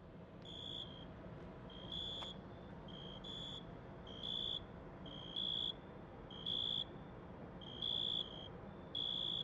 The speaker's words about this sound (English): It is very late at night. Barely anyone is present in the street. The sounds of crickets chirping can be heard throughout the area.